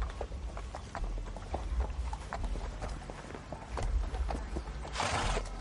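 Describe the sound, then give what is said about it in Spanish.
A horse ridden by Benur, with Esther holding on behind him, clip-clops through Jerusalem at a steady trotting rhythm, a run of sharp, regular knocks over a low rumble, ending in a short burst of hissing noise. “Benur cabalga por Jerusalén con Esther abrazada a su espalda.”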